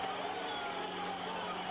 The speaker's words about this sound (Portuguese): Passado poucos minutos, os carros do Corpo de Intervenção começaram a acelerar motores.